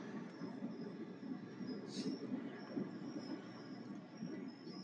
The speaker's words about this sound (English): Fucking airplanes.